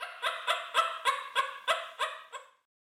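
A parrot cackles with laughter at Pinocchio as he waters the ground covering buried gold coins in a silent, lonely field: a quick, evenly spaced string of about eight harsh, nasal bursts, loud with no talking, then it breaks off abruptly.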